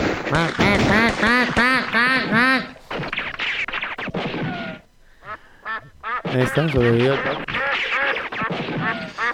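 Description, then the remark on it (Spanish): A duck quacks in quick, loud bursts, a rapid run of calls, then a brief lull before more noisy quacking and honking-like calls pick up again. “Nosotros, damas y caballeros, tenemos que ser ese pato.”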